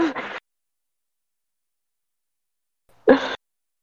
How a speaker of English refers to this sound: uh, this cough's kept me inside the house for way too long because I'm paranoid about how people react if I cough in the streets.